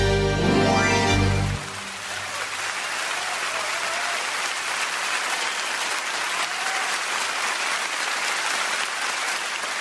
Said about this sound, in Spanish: Me suman los aplausos, por supuesto, y, y digo que hemos escuchado